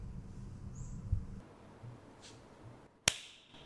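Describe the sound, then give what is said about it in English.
A single sharp hand clap rings out near the end, a sudden crisp snap standing out from a quiet, low background hum, with no talking around it. “with a sound of a clap, we've begun.”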